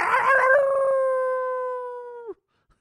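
A dog lets out one long, wolf-like howl, loud and steady for about two seconds before the pitch dips and cuts off into silence.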